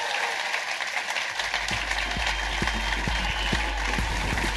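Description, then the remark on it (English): An audience applauds a guest steadily, a dense wash of clapping at a fairly loud, even level that carries on throughout without pause, with a low rumble settling underneath partway through. “Ladies and gentlemen, give it up the amazing Sophie Duker!”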